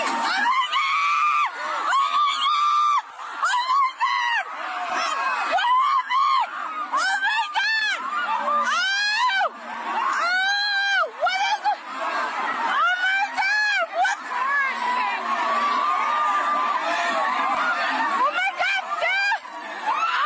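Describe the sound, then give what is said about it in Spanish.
A woman screams "Oh my God" repeatedly in high, strained wails over a loud, agitated crowd at a Christmas parade in Waukesha, Wisconsin, after a driver rammed into the crowd, with overlapping shouts and frantic voices filling the scene throughout. “los gritos de esta mujer. Oh my God, dice, no podía creer lo que estaba sucediendo.”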